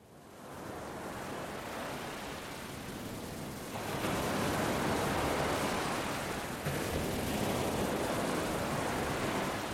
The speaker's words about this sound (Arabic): أنصتنا إلى صوت الأمواج إنه رائع